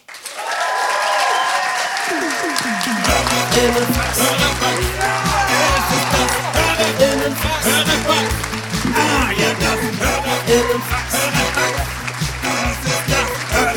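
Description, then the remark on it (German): A large audience applauds loudly and continuously, with cheering voices mixed in, welcoming Max Richard Lessmann at a venue that is normally a techno club, while music with a steady thumping beat starts up a few seconds in and plays beneath the clapping. “Macht einen riesengroßen Applaus für Max Richard Lessmann.”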